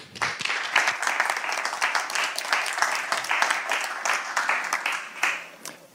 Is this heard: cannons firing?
no